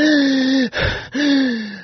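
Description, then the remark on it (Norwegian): Heavy, wheezing, asthma-like breaths: two long whistling exhalations with a rough gasping inhale between them, loud, with no talking. “Nå er det å si at djevelen var nok ikke i den samme gode formen han en gang hadde vært, for snart var han helt utmatta og satte seg ned på benken ved siden av Johan, omgitt av en sovelukt og med en tung, astmalignende pust.”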